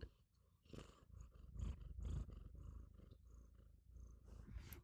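A cat purrs right into the microphone while being scratched, a steady low rumbling with rhythmic pulses, loud, with faint rustling as it shifts around.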